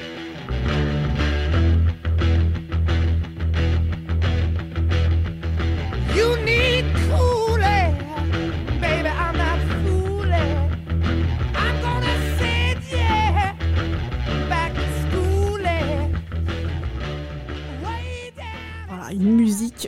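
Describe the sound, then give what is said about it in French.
A classic hard rock song plays loud and dense, driving bass and guitars beneath a wailing, sliding lead vocal, continuous at a steady level throughout. “vous devez forcément la connaître, la musique …”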